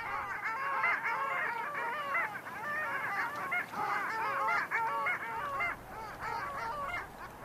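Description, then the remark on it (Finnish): A large flock of long-tailed ducks calls continuously, many overlapping nasal yodeling cries forming a dense, lively chorus with no pauses, loud throughout. “Allien laulu on ilahduttanut viime vuosina läntisen Suomenlahden asukkaita syksystä kevääseen.”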